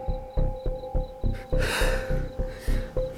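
A man pants heavily in rapid, rhythmic breaths, about every third of a second, broken by one long, deep drawn breath before the short panting resumes, with a faint steady tone humming underneath.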